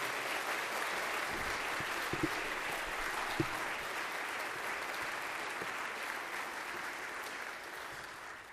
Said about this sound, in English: Um, can we give her another round of applause, please? Thank you.